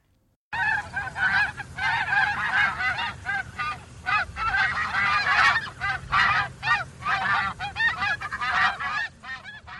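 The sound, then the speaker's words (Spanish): A flock of Canada geese honks continuously, many overlapping calls forming a busy, nasal chorus with a low background rumble underneath and no talking. “Otro peculiar patrón de vuelo es el de forma en V de los gansos canadienses.”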